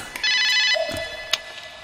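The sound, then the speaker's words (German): A telephone rings with a bright, buzzy electronic tone for about half a second, then a single lower sustained tone lingers, with a short click in between. Fairly loud, no voices. “Es klingelt.”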